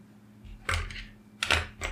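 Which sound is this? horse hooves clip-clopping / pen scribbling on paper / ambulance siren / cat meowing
pen scribbling on paper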